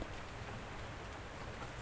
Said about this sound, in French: Il pleut sur Lyon.